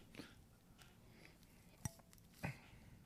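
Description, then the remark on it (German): Wine glasses clink together in a toast, two bright, ringing taps about half a second apart, quiet, against a soft background with no talking. “Glasgeräusch.”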